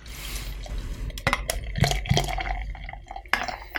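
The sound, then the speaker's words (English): Beer pours steadily into a stein, with a gurgling, splashing rush of liquid and a few sharp clinks and knocks against the glass. Nobody speaks. “Listen to that pour. Get a little bit of a pour in there.”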